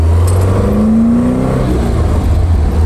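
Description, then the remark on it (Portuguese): An Alfa Romeo car engine with Weber carburetors rumbles loudly, its deep drone climbing in pitch as it revs once, then settling back into a steady idle hum. No one speaks. “A ergonomia da, das alfas é incrível. E esse som, hein? Ah, delícia!”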